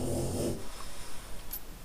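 A dog lets out a single low, rumbling snore lasting about half a second before fading into quiet background noise.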